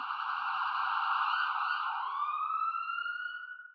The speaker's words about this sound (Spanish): ¿Qué sientes cuando ves una ambulancia pasar a toda velocidad?